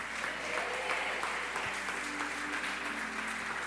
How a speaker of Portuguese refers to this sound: E se você crê do fundo do teu coração, aplauda bem forte a Ele e diga amém.